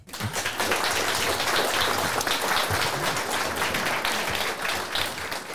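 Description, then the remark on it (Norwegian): A crowd applauds steadily, a dense wash of many hands clapping at a constant, fairly loud level for several seconds without pause, welcoming a speaker, a former Aftenposten foreign editor, at an evening talk in Fredrikstad, Norway. “Gi han en varm applaus.”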